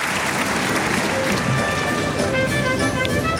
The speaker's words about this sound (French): Et certains se lèvent pour applaudir la qualité de cette série.